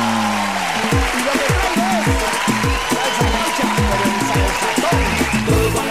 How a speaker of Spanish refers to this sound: fuerte un aplauso para ella.